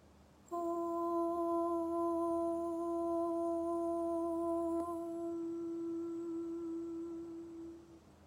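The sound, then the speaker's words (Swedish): A single sustained, high-pitched chanted "om" tone, voiced aloud during a guided meditation, steady and resonant, held for several seconds before slowly fading out, with no talking over it. “Det är ljudet av orm och en väldigt hög tonart.”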